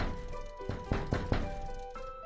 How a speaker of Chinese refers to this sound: 安静的街道里，卷卷敲窗的声音特别响亮。